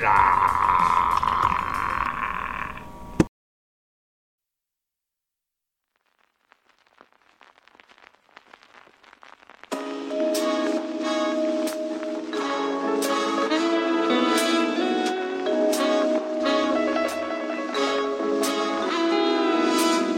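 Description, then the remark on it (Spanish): A Chilean hip hop song's beat intro: a burst of noise, a short silence, faint vinyl-like crackle, then a full, loud beat with bass and steady, evenly spaced hits kicks in and keeps going. “Vamos a escuchar esto desde Chile, agárrense bien que se les viene con todo el hip hop.”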